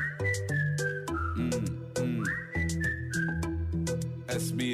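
whistled melody

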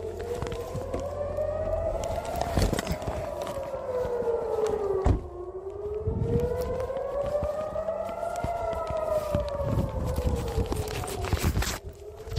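air raid alarm sirens

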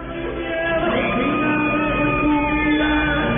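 shouting

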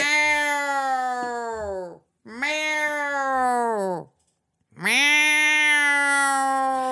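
cat crying / meowing

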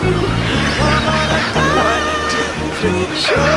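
seagulls squawking

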